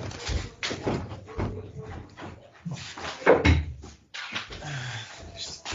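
A door is pushed shut with a single solid thud about halfway through, surrounded by soft shuffling and movement noises.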